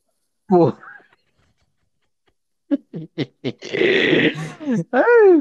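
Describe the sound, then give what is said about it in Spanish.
A person imitates a growling dog: a short voiced yelp, a pause, then several quick barky bursts running into a loud, rough, rasping growl that ends in a whiny vocal sound. “ay, no, andas bien perrita. No, hombre, traigan una correa a esta vieja.”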